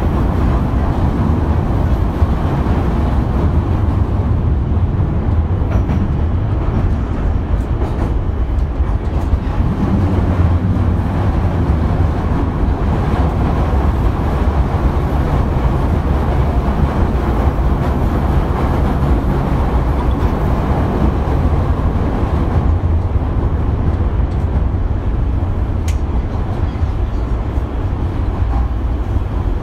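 A Beijing Subway Line 2 train running between stations toward Beijing Railway Station: a loud, steady low rumble with continuous rattling and hiss that holds throughout, with no voices.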